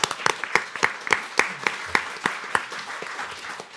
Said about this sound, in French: Et voilà de retour euh, sur le plateau. Applaudissements pour Alexandre Burkhardt qui a tourné ce reportage.